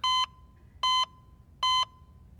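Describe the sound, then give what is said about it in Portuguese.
A heart monitor beeping in a steady rhythm, three bright, identical electronic tones spaced evenly apart, each short and clear with a faint hum lingering between them. No voices are heard. “Aquela máquina que fica medindo o coração, aquele som, ele te dá uma paz, mas quando ele fica aquilo ali te dá um pânico.”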